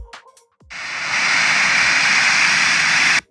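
rushing waterfall

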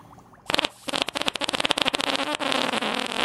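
fart

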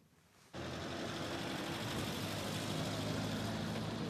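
cars driving past

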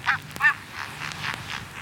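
geese honking

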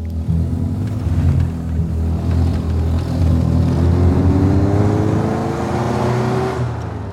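car engine accelerating

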